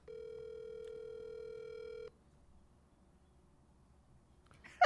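A phone call rings out over the line: one steady, buzzy ringback tone lasts about two seconds, then the line goes quiet with faint hiss before a short crackle at the very end.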